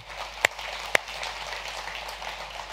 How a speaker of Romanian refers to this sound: Uh, cine e pentru prima dată în sala aceasta? Să ridice mâna dreaptă sus. Vă aplaudăm.